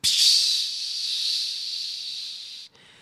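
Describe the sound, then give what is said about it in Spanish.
A voice imitates the hiss of a bottle of black soda with a red label being opened: one long, steady, breathy hiss for a couple of seconds, then abruptly cut off, leaving a faint trailing breath. “era como adicto a un refresco color negro con la botella mm, que tiene una etiqueta color rojo y que cuando lo destapa le hace...”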